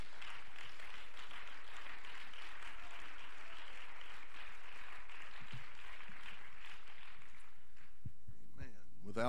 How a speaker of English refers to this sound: Would you clap your hands to the Lord and give him thanks?